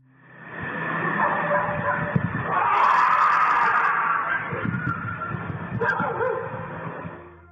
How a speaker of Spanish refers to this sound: en otra capa el sonido de los perros que están por allí, y luego se escucha este rugido, que mucha gente lo aludió como, ah, son los perros, pero ahí se escucha perfectamente cómo suena un perro y cómo suena esta otra cosa que estamos escuchando.